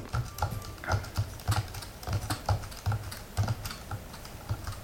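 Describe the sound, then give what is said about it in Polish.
Steady keyboard typing on a braille keyboard, with a rapid series of clicky keystrokes and soft low thumps coming in irregular bursts, with no talking. “Mhm to jest klawiatura brailleowska, może, ja, może na niej, nie wiem, może ja tak piszę jakoś, no bo to pewnie może można na tym pisać ciszej, nie wiem, to trudno mi też powiedzieć”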